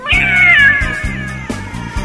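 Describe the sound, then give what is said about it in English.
A single drawn-out cat meow, loud, its pitch sliding downward as it fades, heard over a steady rhythmic musical backing with no one talking. “You turn back around, and staring you face to face in the mirror is a cat.”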